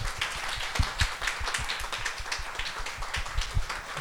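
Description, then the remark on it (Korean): A crowd claps steadily for several seconds for a group of tattooists, a dense patter of many hands applauding together with no talking over it. “여기 타투이스 동료분들한테 박수 한번 쳐주세요”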